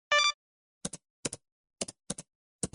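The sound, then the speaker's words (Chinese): A brief bright electronic beep, then computer keys clacking in quick pairs of sharp clicks, about five pairs at uneven intervals, with no voices, as the cartoon character Miaomiao Duck, at a computer desk in a basement, switches on the computer. “妙妙鸭坐在电脑桌前，打开了地下室的电脑。”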